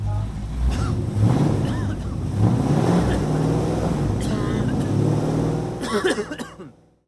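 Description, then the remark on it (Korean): A combustion-engine car emitting acrid exhaust rumbles past, its engine loud and steady for several seconds before quickly fading away at the end. “이 소리는 기후 위기를 심화시키는 내연기관차가 매캐한 매연을 뿜으며 지나가는 소리입니다.”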